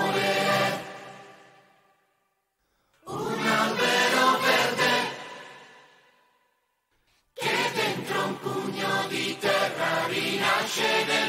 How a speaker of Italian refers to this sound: ci ascoltiamo una canzone sul tema rosso dell'amore che ha scelto Benny